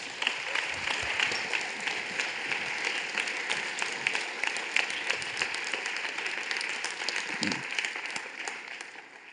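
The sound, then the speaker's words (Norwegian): Sustained applause from an audience fills the room, a dense, steady wash of many hands clapping at even loudness for several seconds. “Vi gir dem en skikkelig god klapp.”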